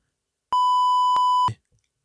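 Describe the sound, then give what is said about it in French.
A loud censor bleep covering a person's name: one steady, high-pitched tone held for about a second, starting and ending abruptly, followed by a brief muffled fragment of sound before silence. “bip moi ce nom immédiatement”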